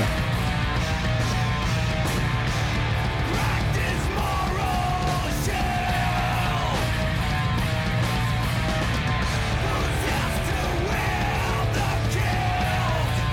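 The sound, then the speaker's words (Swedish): Dense, loud metal recording with pounding drums and distorted guitars filling the mix, topped by harsh screamed vocals that rise and fall throughout. “Alltså, det här är det bästa trumljudet, skivljudet jag har hört i metal.”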